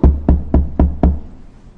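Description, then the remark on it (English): Five firm knocks on the wooden door of Abu Jahl's house, knocked by the Prophet Muhammad, in a quick, steady rhythm, each with a hollow low thud, loud, then fading into quiet. “And the Prophet of Allah الله عليه وسلم took the man went to the house of Abu Jahl and knocked his door.”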